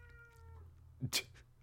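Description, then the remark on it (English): A cat meows, a drawn-out tonal cry followed by a short, sharper yowl, heard alone over a faint low background hum. “Our, our our roommate's cat is very uh, very into this TV list.”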